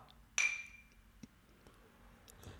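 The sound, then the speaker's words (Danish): Two glasses clink once in a toast, a bright ring that fades over a fraction of a second, followed by a faint tap and quiet background noise. “Skål.”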